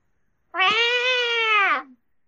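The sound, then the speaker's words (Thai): A person's voice imitates a cat's meow: one drawn-out, nasal, fairly loud call lasting over a second, steady and then dropping off at the end, with nothing else around it. “อันนี้คือเสียงขออะไรครับ เดี๋ยวเดี๋ยวข้างบ้านเอาป้ายมาติด รบกวนอย่าอึบกับแมว”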